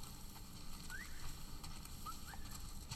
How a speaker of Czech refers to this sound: Jo, a to hvízdání, to teda... Dojdu k bodu, to už bylo ze hry. To už je ze hry. To už na sebe pískají jedna ta nepřátelská frakce, která se takhle rozmívá,